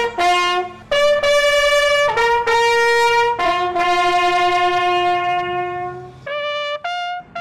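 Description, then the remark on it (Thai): A lone navy signal bugler plays the Thai evening call (Yam Kham) signalling that the sun is about to set, sustaining long bright loud notes one after another with short breaks between phrases, with no voices. “จากพลสัญญาณแตรเดี่ยว เป็นสัญญาณว่า พระอาทิตย์กำลังจะตกแล้ว ทหารเรือคนใดที่ยังทำงานข้างค้าง ให้รีบทำให้เสร็จ ก่อนที่อีกไม่กี่นาที แสงอาทิตย์ก็จะเลือนลับไปค่ะ”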